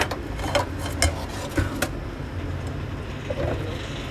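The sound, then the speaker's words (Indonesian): A steady low rumble of street traffic, motorbikes passing on a road some distance away, heard through a kitchen window, sits under a few sharp clicks and clatters in the first couple of seconds, then continues alone. “kalau nonton showroom aku pasti selalu ada suara motor as a background ini back sound Iya, soalnya dapur aku tuh kayak ada jendela dan ini tuh emang tapi jauh jaraknya jauh gitu”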